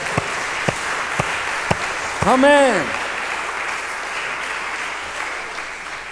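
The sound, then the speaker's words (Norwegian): A church audience applauds steadily for several seconds, asked to clap even louder, a dense wash of many hands clapping, while one voice calls out a short exclamation partway through. “Ja, men det kan vi ta og klappe enda litt kraftigere for, syns jeg.”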